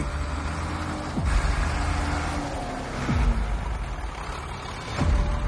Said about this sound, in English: This part of the port, unlike its efficient, privately run neighbor, now relies on an endless line of trucks stretching towards Pongola, 200 kilometers away.